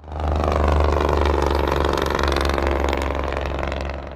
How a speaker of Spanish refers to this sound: El sonido de miles de camiones de carga inundan las carreteras de El Paso día y noche, Muchas trocas provienen de la industria maquiladora de Ciudad Juárez.